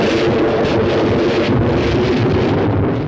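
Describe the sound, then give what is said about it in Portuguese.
A thunder crash sound effect, the famous effect of thunder striking the castle first used in the 1931 film Frankenstein with Boris Karloff: a loud, dense roar of rumbling thunder that holds steady for about three seconds without a clear break, with no voices. “O primeiro filme a utilizar o famoso efeito sonoro dos trovões a caírem no castelo.”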